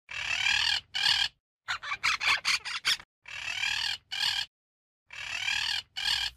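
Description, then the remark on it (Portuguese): A parrot squawks loudly and harshly in a series of raspy bursts, with a quick stuttering cluster of short calls in the middle, with no talking. “Surge um belíssimo papagaio”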